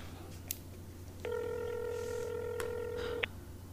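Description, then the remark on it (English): Dialing a phone to call the landlord: a couple of soft clicks, then a single steady electronic telephone tone holds for about two seconds before cutting off, over a low background hum, with no one talking. “I'm I'm gonna give the landlord a call to uh, see if it's some kind of plumbing thing.”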